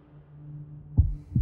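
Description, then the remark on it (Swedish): Two deep, muffled heartbeat thumps land close together near the end, following a quiet stretch over a low, steady hum, with no voices. “Jag försökte andas långsamt, men kände hur pulsen började slå snabbare och snabbare. Var det bara jag, eller kunde man höra mina hjärtslag?”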